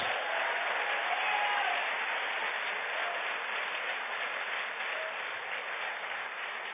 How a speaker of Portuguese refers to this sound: Aplauda ele, acredita nesse negócio.